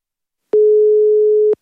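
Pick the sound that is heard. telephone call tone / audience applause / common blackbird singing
telephone call tone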